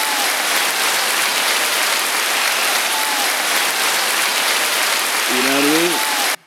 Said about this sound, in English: Let's get a round of applause. There we go.